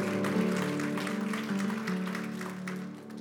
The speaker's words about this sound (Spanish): Entonces, si ve, necesitamos, déles ese aplauso fuerte al Señor.